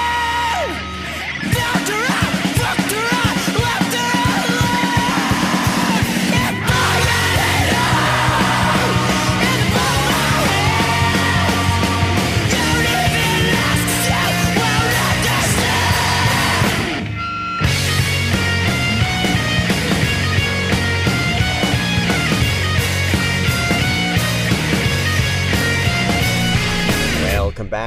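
A loud, dense rock song with distorted guitars and pounding drums under raw, shouted vocals, briefly cutting out before crashing back in at full force.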